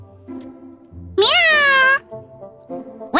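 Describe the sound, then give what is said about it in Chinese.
A single loud, drawn-out meow from a big cat that rises sharply in pitch and then slowly sags, lasting under a second, with a quiet low background murmur before and after it. “哎 呀，妈呀，大猫！”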